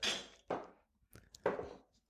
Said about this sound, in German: Ich würde mal äh, in dem Moment nachgießen. Mhm. Möchtest du auch schon?